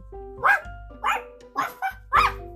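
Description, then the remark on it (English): A dog barks five times in quick, uneven succession, sharp, over a low steady hum with no one talking. “So they thought very hard and sent me a dog.”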